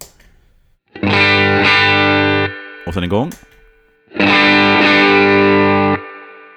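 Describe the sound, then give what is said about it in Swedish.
Two loud, sustained electric guitar chords played through a colourful green overdrive pedal, each ringing for over a second with a gritty, harmonically dense tone, separated by a brief spoken phrase. “Det den färgglada gröna pedalen tittar fram lite grann där.”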